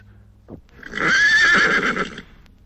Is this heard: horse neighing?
yes